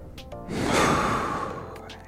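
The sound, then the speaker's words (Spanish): A single deep breath, in and out, taken as a breathing exercise, makes one long airy rush that swells and then fades, with no one talking. “Inhala.”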